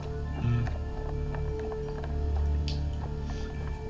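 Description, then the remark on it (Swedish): Quick, rhythmic crunching steps of someone fleeing, running on gravel outside, over a steady low mechanical hum with no talking. “Ni hör hur någon springer, ni till och med hör springande steg ute i, i gruset eh, där uppe så att säga.”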